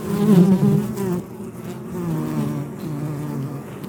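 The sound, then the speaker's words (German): Steady, low buzzing from many worker bumblebees inside a nest on a warm high-summer day, with overlapping wingbeat drones that swell slightly at the start and then settle into a continuous, fairly calm hum. “Aber der hat offensichtlich die Brutwaben ganz unten und deshalb ist er auch ganz friedlich, weil er hier heroben nur die, die Arbeiterinnen hat und praktisch mhm. keine Wächterinnen und keine stechenden Bienen da vertreten sind.”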